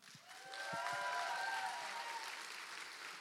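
A church audience claps steadily for a few seconds, a dense wash of applause with a few faint whoops or cheers rising above it before it begins to taper off.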